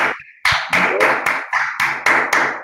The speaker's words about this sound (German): Da klatsche ich sogar.